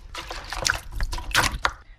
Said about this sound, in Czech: Ty stojínky vlastně si nachystám na výšku toho košíku, který budu plést a dám si ho do vody.